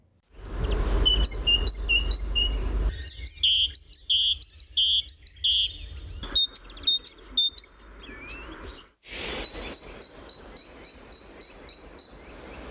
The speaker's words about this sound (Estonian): eks ole, üsna mitmekülgne repertuaar ja ei salga, et nimetatud helisid on teinekord ka omistatud eri lindudele. aga näed, üks rasvatihane kõik laulab need helid ära.